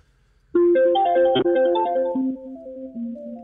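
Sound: phone call disconnect tone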